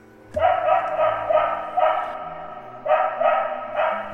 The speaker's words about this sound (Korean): 잠결에 어디선가 개 짖는 소리가 났습니다. 그 소리가 너무도 시끄러워서 잠에서 깨보니 한두 마리가 아닌 정말 저희 동네에 있는 개는 몽땅 다 짖는 것처럼 그 개 짖는 소리가 상당히 요란하고 시끄러웠습니다.